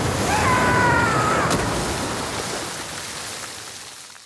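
A loud rush of sea water and splashing, broad, with a brief whistling tone early on, then gradually easing into a steady wash of surf noise, as a 15-year-old boy falls from a ship into the sea and is tossed by the waves.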